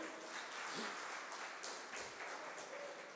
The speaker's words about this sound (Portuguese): Vamos aplaudir o nosso Deus, gente? Vamos aplaudir?